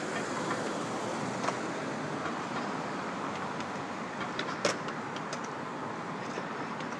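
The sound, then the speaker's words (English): Steady, loud rumble of a subway train and station ambience as someone gets off the train and exits the subway after dark, with a couple of sharp metallic clicks cutting through partway along; no one speaks. “to get off the train. It's dark out. Exiting the subway wearing sunglasses.”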